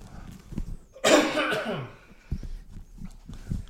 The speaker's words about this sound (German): Ich habe heute meinen Räusperabend, tut mir leid.